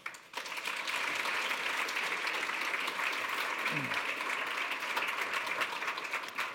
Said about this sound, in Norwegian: En stor applaus til deg.